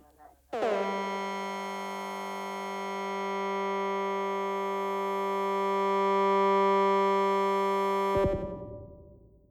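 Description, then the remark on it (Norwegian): One long, steady musical note holds unchanged for about eight seconds, rich in overtones and fairly loud, then stops abruptly as a brief lower sound follows at the end. “Hva er da historia til den tonen her?”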